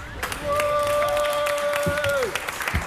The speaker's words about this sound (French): En 2021, on applaudit tout le monde.